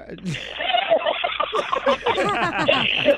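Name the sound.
chicken clucking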